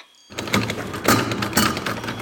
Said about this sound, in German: Warum geht diese verdammte Tür nicht auf? Sie geht nicht auf.